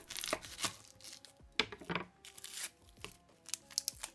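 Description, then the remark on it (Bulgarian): A vegetable being peeled: short scraping, tearing strokes repeat irregularly, a few sharper pulls standing out, over a faint steady background hum. “Обелвам”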